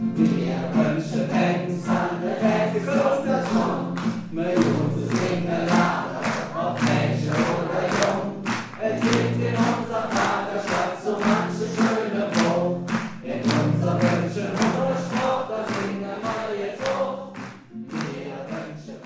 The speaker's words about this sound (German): Und so übt er auch mit dem Publikum wie mit einer Schulklasse zum Beispiel das Penzlied gleich zum Mitsingen.